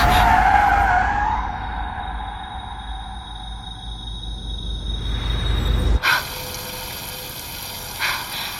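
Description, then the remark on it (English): Worn car tires skid and squeal loudly for several seconds as a car is driven fast in a chase, a shrill whine sliding downward over roaring road noise before it cuts off abruptly into a quieter hiss. “This isn't gonna end well. These tires won't last much longer.”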